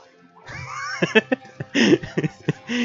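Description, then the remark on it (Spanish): A person imitates a cat's meow with a drawn-out, wavering whine, followed by a few short bursts of laughter or giggling. “No, encima, imagínate, weón, …, no sé, está ahí, se come el waffle, weón, y después anda maullando.”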